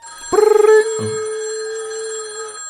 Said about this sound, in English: phone rings again. He picks it up.